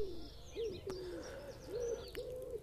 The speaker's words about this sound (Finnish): Nykyään se pesii hyvinkin urbaaneissa ympäristöissä, käyskentelee puistojen nurmikoilla ja huuhilee sellaisissa paikoissa, että ihmiset voivat kerrostaloalueiden parvekkeillakin nauttia sepelkyyhkyjen äänistä ja lentonäytöksistä.